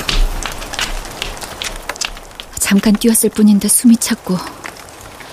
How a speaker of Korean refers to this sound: 편의점에서 소화제와 간단한 음료를 사서 밖으로 나와 몇 발짝 걷는데 빗방울이 떨어졌다. 비가 오는구나 했는데 곧이어 굵은 빗줄기가 머리를 때렸다. 어, 갑자기 비가...